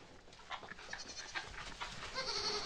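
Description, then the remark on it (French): Goats bleat several times in quick succession at milking time, their nasal, wavering calls overlapping a little over a soft background, with no one speaking. “On va récupérer le lait des chèvres pour en faire du bon fromage.”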